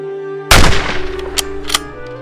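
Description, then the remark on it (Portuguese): A loud, sharp shot from a Mosin Nagant bolt-action rifle cracks out, followed about a second later by two fainter shots in quick succession, all over a steady droning musical tone; Soviet sniper Lyudmila Pavlichenko's fire in the defense of Odessa against German forces. “Nesta batalha, 187 inimigos foram eliminados pelos disparos do fuzil de ferrolho Mosin Nagant de Mila.”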